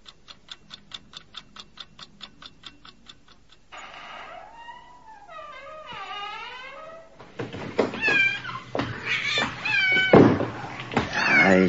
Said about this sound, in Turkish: şu kedi pıs pıs çekil şuradan.